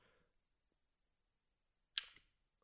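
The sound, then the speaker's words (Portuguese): After a quiet pause, the trigger of an airsoft Glock pistol with an extended magazine and no pellets loaded gives one sharp click, quickly followed by a softer second mechanical click, a dry fire. “E temos aqui uma pistola com um pente estendido, uma Glock. E vamos. Nota-se não tem balas.”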